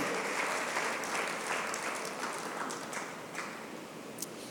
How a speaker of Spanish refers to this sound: Alguien déle un aplauso a Jesús y dígale gracias, porque tú eres mi Padre.